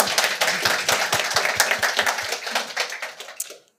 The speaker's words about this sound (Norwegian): Ja, dere må klappe.